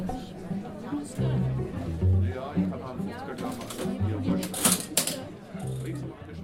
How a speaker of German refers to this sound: Ui, schau mal. Da ist ja eine richtige alte Kasse. Äh, wo sind wir denn jetzt eigentlich? Im Theater Kuckucksheim in Heppstedt. Und an der alten Registrierkasse steht der Chef persönlich und verkauft die Eintrittskarten.